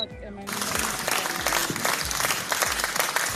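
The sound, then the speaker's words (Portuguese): A burst of applause sound effect kicks in after a brief moment, dense clapping from a sizable crowd that stays loud and steady to the end, with some low thumps underneath. “Ai, que delícia os efeitos sonoros.”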